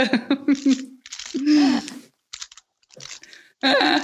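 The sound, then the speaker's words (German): Crunching and rustling of packing peanuts in several short bursts with pauses, as a parcel holding an Oreo box full of packing peanuts is opened and stirred, while soft murmured vocal sounds come through between the bursts. “Erbsen, Es sind Verpackungserbsen ganz viele, die sehen ganz süß aus.”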